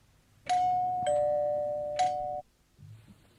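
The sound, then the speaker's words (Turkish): A doorbell chimes loudly, three bright struck tones blending into one sustained ring that cuts off after about two seconds, followed by faint low rustling. “Kapı çalınıyor.”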